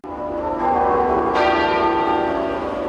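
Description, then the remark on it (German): Church bells tolling together at 12 noon across the United Kingdom in remembrance of the late Queen, in a dense, ringing wash, with a fresh strike adding brightness partway through; loud and sustained, with overlapping resonant tones and no voices. “Um 12 Uhr mittags läuteten im ganzen Land die Glocken, um der verstorbenen Königin zu gedenken.”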